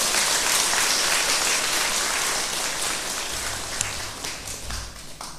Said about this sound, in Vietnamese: vừa nêu đó thì tăng đồ chùa giác ngộ là đóng góp nhiều phật sự nhất với nhiều thành quả nhất gắn kết với uh, chủ trương phụng sự nhân sinh tốt đề đạp đạo sáng sôi đạo pháp hộ quốc an dân hãy dâng cao một tràng vỗ tay thật lớn để tán dương chung